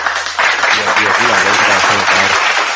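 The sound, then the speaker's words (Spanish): A loud burst of applause erupts after a short pause and holds steady, with a crowd cheering and voices chattering underneath the dense clapping. “¿Dónde están los aplausos aquí, Aquí ya.”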